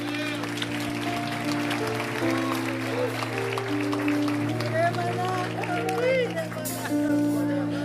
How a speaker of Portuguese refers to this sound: E se vamos aplaudir, aplauda bem forte ao Senhor.